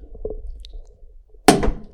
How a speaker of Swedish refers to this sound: Nu, vi är lite rädda, att det, ska smälla, vi är lite rädda att det ska smälla en kork här ja, inne just Jag tar, den, jag tar den i taket. Den kommer nu.